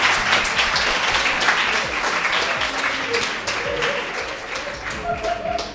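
Sustained audience applause, a dense steady wash of many hands clapping at an even loudness for several seconds, with faint murmuring voices mixed underneath.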